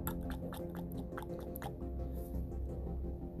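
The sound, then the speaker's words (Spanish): A voice imitates someone gulping water from a glass left by a grandfather's bed: a quick series of wet, clicking swallow sounds, fading after the first half into a low steady background hum. “Escuché cómo alguien se estaba tomando el agua.”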